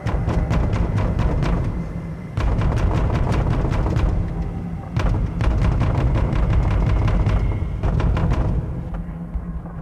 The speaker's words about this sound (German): Aber hier gibt es ein lautes Hämmern an der Tür oben am Ende der Wendeltreppe. Da möchte scheinbar jemand raus.